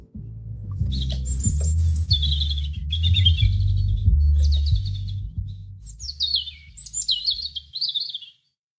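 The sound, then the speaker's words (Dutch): A European robin sings a series of high, liquid warbling phrases with quick trills and slides, clear, over a steady low rumble of background noise. “Over de roodborst de roodborst. Ik ga hem even laten horen hoor.”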